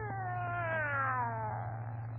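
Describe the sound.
A single long, wavering cat yowl, loud, rising then slowly falling in pitch, drawn out over about two seconds above a steady low hum.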